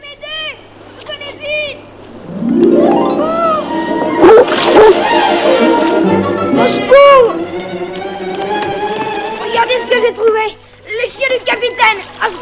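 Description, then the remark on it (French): Two huge Great Dane dogs, just released, bark, yelp and whine excitedly, their loud, overlapping calls continuing almost without pause for the whole stretch. “Francis venait de libérer les deux énormes chiens danois du capitaine.”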